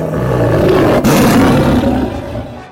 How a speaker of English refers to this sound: It is said that Barong's roar that day shook the very foundations of Bali.